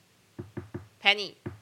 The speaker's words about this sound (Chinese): 例如说他进门前敲门一定要敲三下，他们他们的邻居叫 Penny，他就会这样